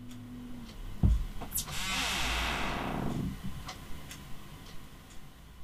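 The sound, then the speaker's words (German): A desktop computer under a desk is shut down by pressing its button: a low steady hum cuts out, a click follows, then a broad fan whoosh falls in pitch and fades, leaving faint ticking. “Und ähm, wie lüfterlos es geht, das zeige ich euch jetzt, indem ich einfach mal diesen lüfternden Rechner unter meinem Schreibtisch herunterfahre.”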